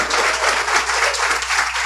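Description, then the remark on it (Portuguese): An audience breaks into a sustained round of applause for the Lord, dense overlapping claps forming a steady, fairly loud wash of noise with no voices standing out. “Mais uma salva de palmas ao Senhor.”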